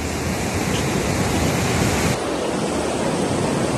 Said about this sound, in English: Here's a report of how the surging river is just doing its job.